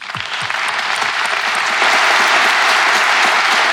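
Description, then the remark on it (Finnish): An audience at a first Advent Sunday mass breaks into applause, dense clapping that builds quickly and grows louder, filling the whole stretch with a steady, crackling wash of many hands. “Tuota, niin, niin annetaan sille pienet aplodit.”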